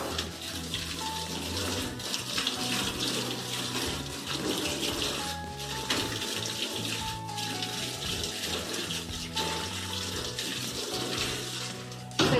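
Steady running water pours from a tap as hands are rinsed with plenty of water during handwashing, with soft splashing and shifting as hands move under the stream, continuous throughout, with no voices.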